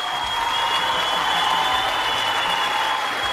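Steady applause from a group fills the whole stretch, a dense, even wash of clapping with no pauses, moderately loud and without anyone speaking over it.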